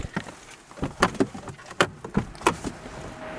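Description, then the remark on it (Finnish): A car tailgate being opened: a quick series of sharp mechanical clicks and clunks from the latch and hatch, about six of them, with a faint rustle between and no talking. “Katsotaan takalukkuun vielä.”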